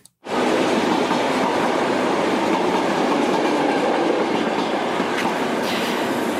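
A train rolls into a station platform, its loud, steady rumble and rattle of wheels starting abruptly and filling the scene, with no voices.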